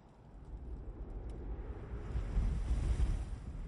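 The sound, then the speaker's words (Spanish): Wind roars and gusts in a steady, rumbling wash of noise that swells louder toward the end, with no voices, just the blustery howl; a clip from the film Krampus. “Todo empezó con el viento”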